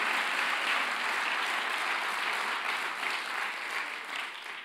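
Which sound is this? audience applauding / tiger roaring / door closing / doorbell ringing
audience applauding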